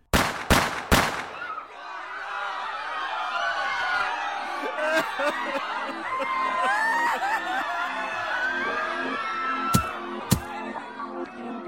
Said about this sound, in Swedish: Det krävdes tre skott för att skapa osäkerhet i Dallas, USA och den övriga världen. Tre skott för att mörda president John F Kennedy. Bara tre skott för att skapa total panik.